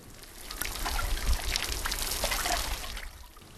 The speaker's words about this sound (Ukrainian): У спеку працівники поливають їх водою зі шланги.